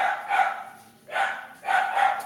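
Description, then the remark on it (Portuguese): Female pet dogs bark and yip in quick, excited bursts, three noisy volleys close together, fairly loud, with no talking over them. “Olha, minhas cachorras se amam.”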